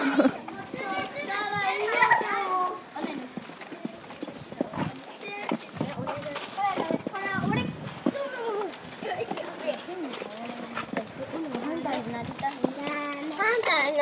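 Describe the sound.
A group of elementary schoolchildren walking home from school chatter and call out, their high voices overlapping in a lively, continuous babble with occasional louder shouts, on a hot early-summer day.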